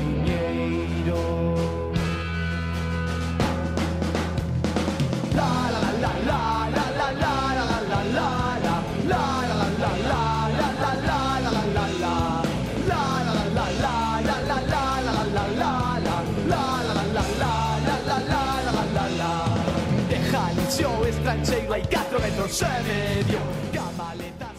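A Galician folk-style song with sung vocals over a full, steady band accompaniment, loud and continuous throughout, with melodic lines weaving over a strong rhythmic backing.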